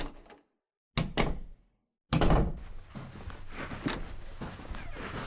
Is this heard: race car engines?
no